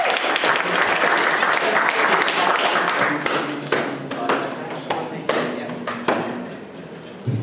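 Steady audience applause welcoming a performer introduced as lyric holder, a dense patter of many hands clapping at full volume, then thinning out into scattered individual claps as it fades over the last few seconds.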